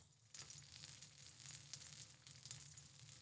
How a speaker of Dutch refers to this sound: Dit, dit sissende geluid van een, van een klein stukje, een vleesje. Nee. Wat, wat lekker aan het sudderen is. Het is, een, het is een stukje kweekzalm die op de plaat ligt te pruttelen.